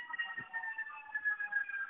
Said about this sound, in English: yeah, sorry for the background noise. Of the... Uh, no, I guess I guess the cops are coming for me. I should probably stop but anyway, um, I think it's more of a fire truck. It's, there's a fire somewhere.